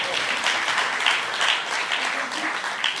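Steady applause from a church audience for the members of Generation Y (born 1981 to 1995), a dense wash of many hands clapping at an even, fairly loud level throughout, with no voices standing out.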